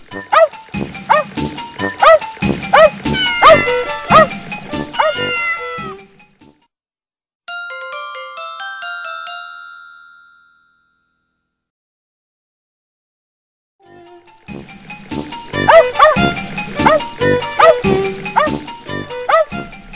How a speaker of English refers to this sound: The pup speaks up. Bow wow wow!